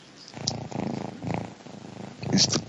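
A cat purrs close up in a steady rumble that swells and fades with each breath, about four cycles, with brief quiet gaps between them.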